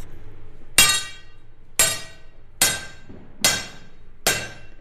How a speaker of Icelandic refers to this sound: hamrar játnið af miklum krafti mikill er staðfestu og öryggi glóðin fyrir á flug og ég þarf að færa mig frá